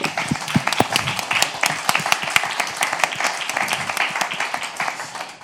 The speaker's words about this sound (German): Und vielleicht können wir an der Stelle dem mal einen riesen Applaus geben.